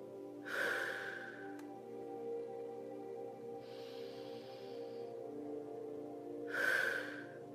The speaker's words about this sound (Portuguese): Toda vez que você colocar o ar para fora da sua boca, que você expirar, imagine que toda a sua resistência está indo embora. A sua resistência em aceitar a vida como ela é pode fazer barulho assim para colocar para fora esse ar.